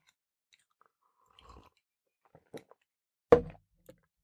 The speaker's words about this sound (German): Da kommt ein großes Stichwort, aber bevor ich das ausspreche, mal kurz ein Schluck Tee. Meine Kehle ist etwas trocken.